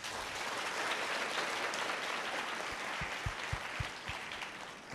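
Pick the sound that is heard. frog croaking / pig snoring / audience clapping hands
audience clapping hands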